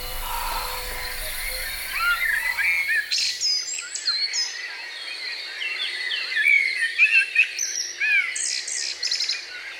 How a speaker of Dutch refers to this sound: En ondertussen zong de merel.